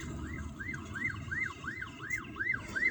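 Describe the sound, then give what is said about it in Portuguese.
An ambulance siren sweeps up and down in a quick, steady wail, about twice per second, as the ambulance passes by, over a low rumble of street traffic. “Tá barulho de ambulância.”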